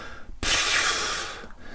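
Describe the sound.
A voice imitates the long, drawn-out exhale of someone entering a room: one sudden, loud, breathy rush of air that holds for about a second and then tapers off, with no talking.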